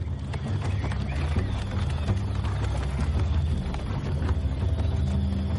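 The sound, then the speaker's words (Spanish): Many horse hooves clip-clop steadily, overlapping into a busy, continuous patter over a low rumbling background, as a group of Dothraki riders advances in a line across rolling open land of low grass and scattered trees. No one speaks. “Caldrogo se adelanta con seis jinetes.”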